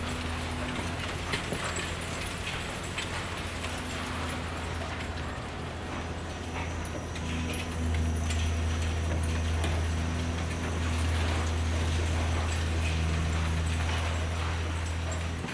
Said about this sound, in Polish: wtedy był burzony ten budynek, ten blok A. No i też nagrałem, jak on jest burzony. To też taki efekt, który rzadko kiedy można spotkać i, i ja akurat tam byłem obok, ale ja się bardzo chętnie dzielę tym efektem.